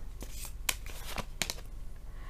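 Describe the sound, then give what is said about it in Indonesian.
Tarot cards being shuffled and drawn for a career reading for Capricorn, with a few sharp riffling snaps and soft slides spread across a couple of seconds at fairly low volume. “Kita bacakan sekarang kartu karirnya untuk Capricorn.”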